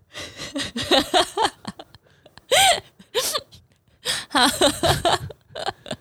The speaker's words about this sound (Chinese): 哈欠来嘞